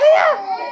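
A young child's brief, high-pitched wail, loud at first with a bending, tonal cry that fades within a second, with no other voices over it.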